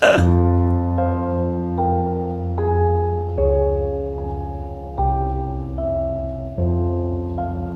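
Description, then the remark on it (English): Sustained piano chords, a progression taken from a guitar section, change every second or so while a higher lead melody moves over the top, steady and fairly loud, with no voices, giving a gentle, slightly eerie music-box feel. “So I took basically the chord progression from my guitar section um, and put basically put it on a piano and put a set a lead section over the top and made it just sound beautiful if I do say so myself.”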